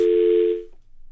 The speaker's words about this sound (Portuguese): E, uh, pelos vistos, está a cair uh, a linha telefónica. Vamos tentar recuperar estas chamadas.